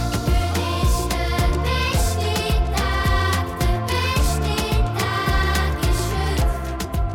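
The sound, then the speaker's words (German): A children's choir sings a bright, continuous melody over full band accompaniment with a steady, pulsing bass, loud throughout, like a studio recording. “Kinderchor Singvögel landet im Radiostudio”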